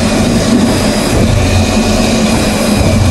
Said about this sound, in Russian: вот эти хуйни – это иглы, которые входят в филе э, и накачивают его водой. Вот так вот филешка накачивается водой, из 10 килограмм становится 12,5 и 25% накачка.